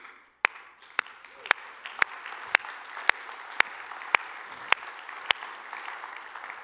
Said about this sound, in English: And the Bible tells us that we are to clap our hands.